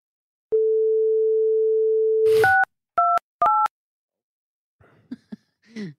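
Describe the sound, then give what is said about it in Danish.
A telephone call being placed to the comedian Geo: a steady dial tone hums for about two seconds, then three short two-note keypad beeps follow, with a few faint clicks and rustles afterward. “Ja, ja, fordi vi ringer nemlig til komikeren Geo.”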